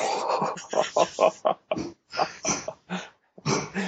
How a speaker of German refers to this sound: Und ähm, das Geräusch gerade war übrigens eine brechende Katze.